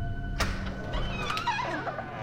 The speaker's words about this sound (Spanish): La puerta de la habitación de Sam se abre lentamente